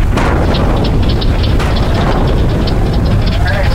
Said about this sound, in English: From New England to British Columbia, forests are beginning to sound like a war zone as untapped, sap-packed maple trees go to meet their maker.